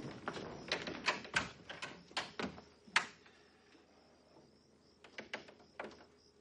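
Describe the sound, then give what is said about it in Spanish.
The door of a bunk room being pushed shut after everyone has sneaked out, heard as a quick series of sharp clicks and knocks in two bursts, with a short quiet pause between them and no voices. “Cuando todos han salido, encajan la puerta de la estancia.”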